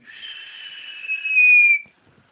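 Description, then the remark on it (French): A single sustained whistle, made by a person imitating soda bottles dropped from planes in the 1948 war, rising slightly in pitch and growing louder for about two seconds before cutting off abruptly. “On les balançait du ciel, des avions, elles faisaient juste du bruit.”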